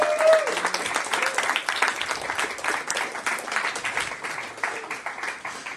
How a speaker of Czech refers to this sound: Mohli bychom jim ještě zatleskat, prosím vás, pochválit je.